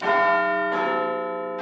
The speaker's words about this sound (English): What's that I hear? It's the chimes of Big Ben. Don't they sound great today?